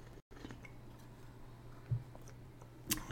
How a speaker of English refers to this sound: Um, but first, a sip.